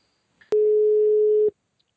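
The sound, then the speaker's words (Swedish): A single steady telephone ringing tone sounds for about one second as a phone call is placed, clean and loud, with a sharp onset and cutoff, followed by near silence. “Men vi tar och eh, ringer till eh,”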